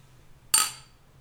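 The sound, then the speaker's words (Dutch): Two glasses clink together once in a toast, a bright ring that lingers and fades over a fraction of a second, with a low steady hum underneath and no talking. “Laten we dan maar ouderwets... Eh, Klinken.”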